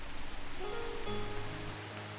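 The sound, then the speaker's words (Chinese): Heavy rain pours down outside in a dense, steady hiss, resuming a downpour after easing, after the thunder has stopped; it fills the whole clip at an even loudness, with a faint low hum underneath and no voices. “外面的雷声已经止住了，但是那减弱的雨却又恢复了瓢泼。”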